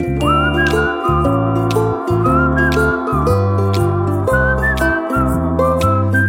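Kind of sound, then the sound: human body sound, person whistling a tune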